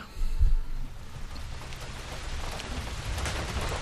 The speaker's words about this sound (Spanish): Pues creo que esta empieza a llover, creo que empieza a llover.